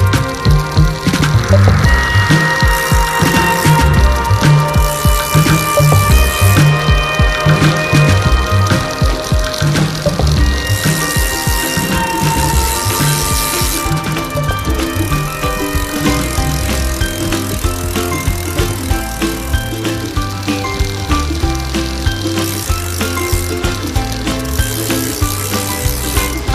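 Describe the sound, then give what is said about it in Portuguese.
Bicycle pedalling with a freewheel ratchet clicking in rapid, steady runs, loud and continuous for the whole stretch, layered over a dense mechanical whir with no voices. “Agora só nos resta pôr os pés nos pedais e aí vamos nós.”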